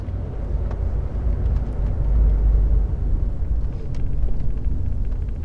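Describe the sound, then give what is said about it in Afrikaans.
A steady low rumble fills the inside of a parked car with people sitting in it, a muffled droning hum with faint ticks and shifts on top, swelling slightly midway. No one speaks. “Hulle sit in die kar.”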